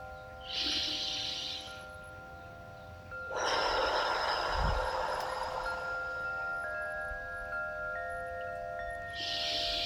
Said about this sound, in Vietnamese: và trong cái lúc mà mình làm á thì là đưa cái luồng khí của mình vào sâu xuống dưới ổ bụng khi hít vào ha rồi lại với ba hơi thở như thế nào